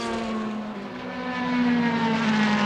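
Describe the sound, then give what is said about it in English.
A Sernagiotto Lacorte LMP3 race car's engine holds a steady, buzzing drone on track that grows louder toward the end as it approaches, with no one talking over it. “The Sernagiotto Lacorte LMP3 car in their path”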